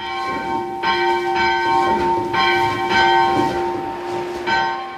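A school bell at the Ostfriesisches Schulmuseum Volmhusen rings repeatedly in a steady, swinging rhythm, each stroke ringing out with bright, sustained metallic overtones that overlap and linger. It sounds loud, with no talking.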